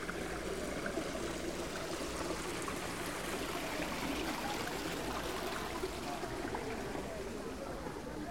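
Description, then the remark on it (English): Steady streaming water runs and trickles continuously in a pond in a Japanese garden, a full, even wash of flowing water with no pauses, filling the whole scene. “And this sound of streaming water gives us a feeling of freshness.”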